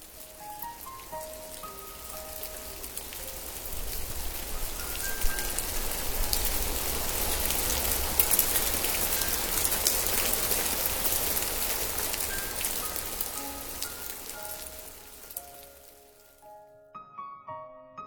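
Steady rain falls in a dense, hissing wash that swells through the middle, with scattered drops pattering on a surface, then fades out near the end. No one speaks.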